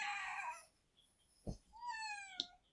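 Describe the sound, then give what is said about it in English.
Two drawn-out, whiny cat meows, the first loud and strained, the second rising then trailing off, with a short knock between them and no talking. “No, it's a comedy cat who was blaming me for the rain.”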